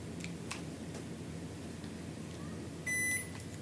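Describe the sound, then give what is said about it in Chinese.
An air conditioner that had been unexpectedly noisy gives a single short, high electronic beep as it is switched off, heard over a steady low hum, with a few faint clicks just before. “这个空调是意外的吵啊！不好意思，容容我关一下空调哈。”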